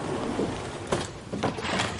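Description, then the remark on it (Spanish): The back door of a house is pulled open as people go out, with a steady mechanical rattle and scraping, broken by three or four sharper clunks and knocks. No one speaks. “Salen por la puerta trasera.”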